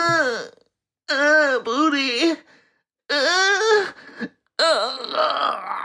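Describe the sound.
A man lets out several drawn-out, strained vocal groans and grunts, loud, in bursts separated by short pauses, sounding like someone straining hard.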